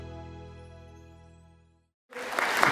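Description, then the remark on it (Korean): A sustained, ringing musical tone fades into a short silence, then a loud burst of clapping breaks out, continuing to the end. “그러면 박수 한 번 부탁드리겠습니다.”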